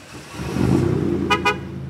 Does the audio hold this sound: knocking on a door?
no